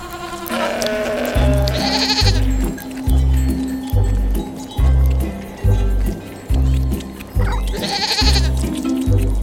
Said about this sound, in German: Unser Tier liefert leckere Milch, aus der man Käse machen kann. Und aus dem Fell unseres Tieres kann man schwarze, graue, weiße oder braune Wolle herstellen. Und, weißt du es schon? Welches Tier suchen wir? Ich sag es dir. Es ist die Ziege.